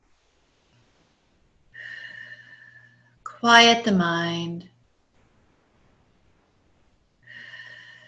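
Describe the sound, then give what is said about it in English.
Slow, deep breaths drawn audibly, in through the nose and out through the mouth: one long breath, a short spoken phrase, then another breath beginning after a quiet pause. “Breathing in through the nose, out through the mouth.”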